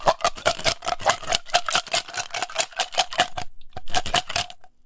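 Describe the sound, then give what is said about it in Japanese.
Ice cubes rattle and clink rapidly inside a steel-like metal tumbler of the kind used for highballs, a continuous jangle with a faint metallic ring, pausing briefly before another burst of shaking. “ガラスのグラスじゃないから、これ氷の音なんだけど、ちょっとなん、なんて言うんだっけ、あの、ハイボールとかに使うような、なんか、鉄みたいなやつ、よく冷えるやつ。”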